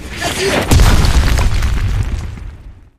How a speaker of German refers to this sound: Viele Explosionen.